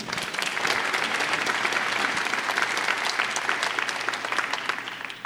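Steady audience applause for a guest speaker at an evening talk fills the whole stretch, a dense, even patter of many hands clapping at a fairly loud level with no voices standing out.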